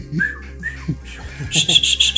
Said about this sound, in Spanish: El regreso al chiflido original.